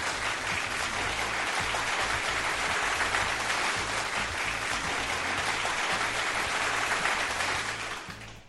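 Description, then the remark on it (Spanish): Sustained crowd applause, a dense, steady wash of clapping that holds at an even loudness for about eight seconds before tapering off at the end. No one speaks over it. “Unos grandes aplausos.”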